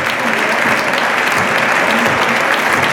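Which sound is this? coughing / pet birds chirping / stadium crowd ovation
stadium crowd ovation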